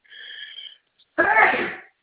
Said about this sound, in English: Excuse me, I'm going to sneeze